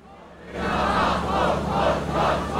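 A large protest crowd at a demonstration against the NRW assembly law in Germany on 26 June 2021 chants in rhythmic bursts, voices swelling and falling in repeated waves that rise after a brief quieter start. Loud, with no single speaker standing out.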